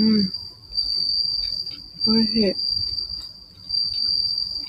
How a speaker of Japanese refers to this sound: すごいな、今日すごいスズムシ鳴いてますね。うーん。うん、発情期かも。なるほど。時期、時期であるんでしょうかね。